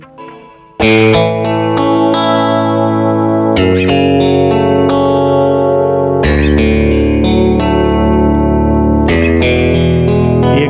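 A chord progression on electric guitar, four full triad chords strummed about every three seconds, each ringing out loud and sustained with a chorus-like shimmer, no voices.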